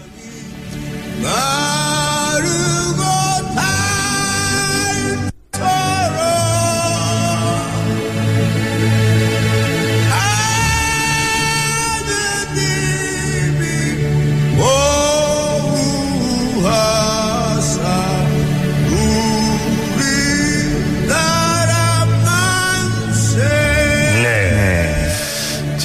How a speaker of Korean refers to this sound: 대한장에서 …의 목소리로 또 촛불 시민들이 합창을 한 애국가.